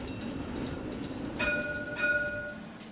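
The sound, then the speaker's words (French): A tram rumbles steadily at a tram stop in Échirolles, in the Grenoble area of France; about halfway through, a bright, ringing tone sounds twice in quick succession over the low mechanical hum, with no one speaking. “Nous, les seules informations qu'on a euh, en notre possession, c'est le, lieu des faits au niveau d'un arrêt euh, du tramway.”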